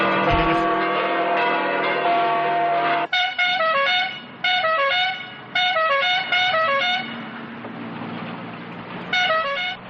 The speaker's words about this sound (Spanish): esta bocina pera es la que identifica la escapada porque suena continuamente